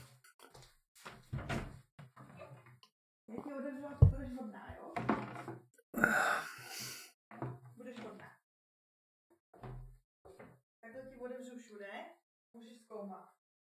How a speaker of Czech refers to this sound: Vteřinku. A jenom odevřu do bytu.